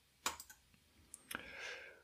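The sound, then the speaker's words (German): A few sharp computer mouse clicks on a Randomize button, fairly quiet, in a brief cluster, then another click followed by a faint rising electronic swish. No one speaks. “Dementsprechend würde ich jetzt auf Randomize klicken. Ich tue dies.”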